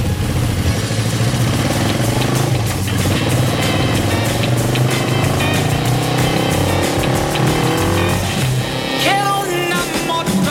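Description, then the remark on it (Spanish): A motorcycle engine runs loud throughout on a route through Andalusia, starting from Seville across its province and towns of Huelva and Córdoba, its pitch rising and falling as it revs and accelerates, with a steady low rumble underneath and no voices. “Seguimos conociendo Andalucía y volvemos a ofrecerle la opción de conocer algunos rincones de nuestra tierra subidos en moto.”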